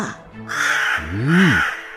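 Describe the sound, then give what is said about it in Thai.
A large crow caws twice in quick succession, each call harsh, raspy and loud, with a brief gap between them and no other sounds around. “และแล้ว อีกาตัวโตก็ได้บินโฉบลงมา และจิกกินถั่วและงาอย่างสบายใจเหมือนเช่นทุกวัน”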